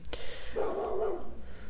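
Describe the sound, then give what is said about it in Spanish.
A dog gives a single drawn-out bark or yelp in the background over a steady low hiss, with no talking. “Ok, disculpen si escuchan perros ladrando de fondo.”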